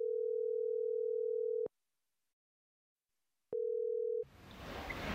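A steady telephone ringing tone sounds twice, a long burr, a pause of silence, then a second burr cut short as the line picks up into faint background noise; the call is placed from a primary and lower secondary school in Vang.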